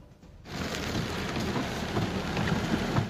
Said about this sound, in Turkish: Dışarıda da gök gürültüsü var.